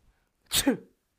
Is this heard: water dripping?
no